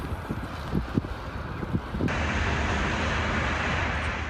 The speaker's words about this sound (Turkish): İzmit Körfezi'nde de sabah saatlerinden itibaren yer yer yağış ve şiddetli rüzgar etkili oldu. Yükselen dalgalar açık otoparkın bir kısmını sular altında bıraktı.